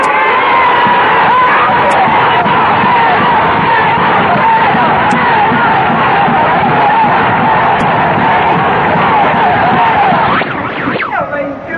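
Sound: crowd shouting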